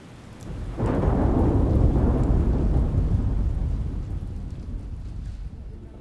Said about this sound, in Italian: i loro lunghi impermeabili blu svolazzano come bandiere in mezzo alla tempesta.